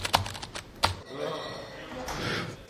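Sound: typing on computer keyboards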